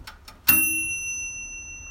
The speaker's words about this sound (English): That was the sound of my brand new toaster oven being used for the first time ever on sourdough bread that I just got from Zeppeli, one of the very few, surprisingly few, bakeries in the city of Boise